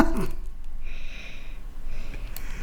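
A small child breathes into the microphone: two soft, airy exhalations, each a hissy rush of about half a second, separated by a short pause. No one speaks.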